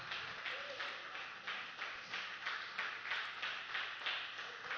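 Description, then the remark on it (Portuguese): A church audience applauds steadily to praise the name of the Lord, dense clapping rising and falling in waves for several seconds, with faint voices underneath. “E graças a Deus, vamos aplaudir o nome do Senhor.”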